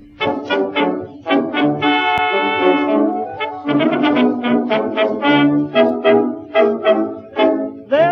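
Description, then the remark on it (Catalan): An old 1920s-style popular song recording, said to have sold a million copies in three months, plays: a lively male vocal sings over a small band accompaniment, with one long sustained note early on and a bouncy, steady rhythm. “se suposa que va vendre un milió de còpies en tres mesos i sona així”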